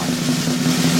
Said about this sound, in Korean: 번호판 돌립니다. 아, 들리죠? 들리죠? 돈, 도는 거 야무지게 돌죠, 얘 지금?